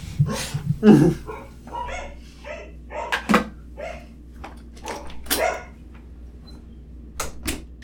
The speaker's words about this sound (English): God, they're both barking now. I can't do anything about this.